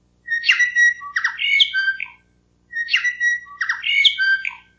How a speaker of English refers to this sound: The bell bird had been used as Radio New Zealand's shortwave interval signal since the 1940s